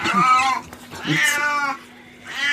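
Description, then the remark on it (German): A male cat with diabetes meows loudly on a property, three drawn-out, whiny calls in quick succession, with the last one cut short. No one speaks. “Wir haben also auch einen Kater mit, mit Diabetes hier auf dem Grundstück.”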